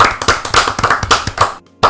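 Applause for the first guest, brisk, sharp hand claps in a steady, fairly loud patter, with no voices. It stops abruptly for a brief moment near the end, then one more clap lands.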